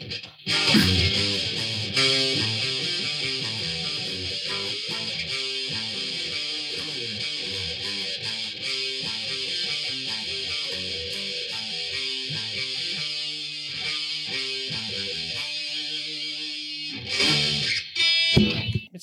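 Loud, distorted electric guitar riff in a rock track, with a chugging, repeating rhythm over a full band; it thins out briefly near the end before crashing back in.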